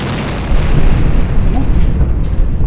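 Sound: explosion sound effect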